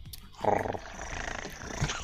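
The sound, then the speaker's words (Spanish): A person makes a low, rolling purr-like rumble with the voice, imitating a cat purring, sustained for about two seconds at moderate loudness with a brief louder burst near the start. “No, güey, pero espérate, ya, ya que ahora te dije que ocupan el ronroneo para comunicarse, deberías ronronear.”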